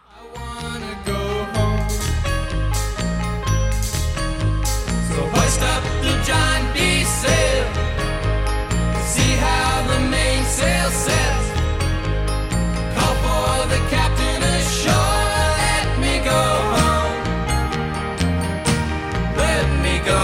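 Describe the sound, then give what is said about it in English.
A reworked folk rock version of a song that peaked at number three on the Billboard 100 plays at a steady, full volume, driven by a bouncy bass line standing in for a tuba that steps up and down beneath bright, layered instruments throughout. “It's reworked here to a folk rock version”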